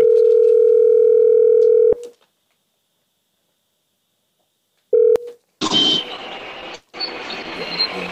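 A steady telephone dial tone hums for about two seconds, then silence, a single short ringback beep, and the line connects to a burst of busy background noise.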